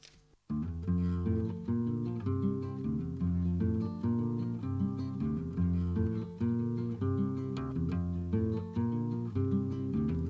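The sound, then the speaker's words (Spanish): A recorded song starts after a brief pause, with steady harmonic instrumental accompaniment and a rhythmic pulse playing loudly and continuously, no talking over it. “Seguimos con más música.”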